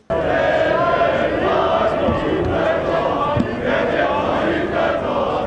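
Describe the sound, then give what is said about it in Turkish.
A large crowd of civilians in the courtyard of Anıtkabir chants loudly and continuously in unison at a 29 October ceremony, shouting slogans for Turkey's President after applauding his appearance, voices blending into a dense roar with rhythmic swells. “Mozeleye çelenk bırakılmasının ardından Cumhurbaşkanı görünür görünmez alkışlar başladı. Sonrasında reis sloganları.”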